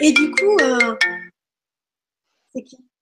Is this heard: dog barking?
no